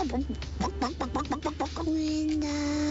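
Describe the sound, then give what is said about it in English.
A mother imitates a chicken when a child asks what the chicken says: a quick run of rhythmic clucks, about eight short pitched bursts, then a sustained higher tone. Fairly loud, with a low hum underneath. “Mama, what does the chicken say?”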